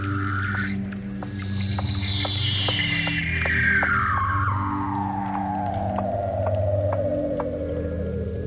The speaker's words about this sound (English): And I've heard the haunting siren like voices of Weddell seals singing under the Antarctic sea ice.